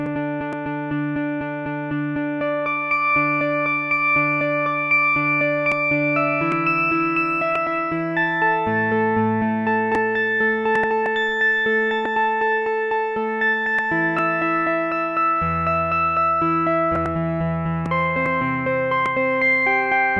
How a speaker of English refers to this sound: The arpeggiator, on the other hand, will repeat the note you're playing and will change the pitch for every following sound sparkle.